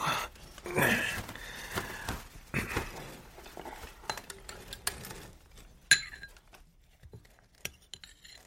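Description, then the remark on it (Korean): Spoon clinking against dishes at a dining table as someone scoops up a spoonful of doenjang (soybean paste) soup: a series of light, bright metallic clinks and taps at an irregular pace, with one sharper clink standing out, and no one talking. “나는 몰래 훔쳐먹기라도 하는 것처럼 조심조심 숟가락을 들어 밥상 위에 놓인 된장국을 한번 떠서 먹어봤다.”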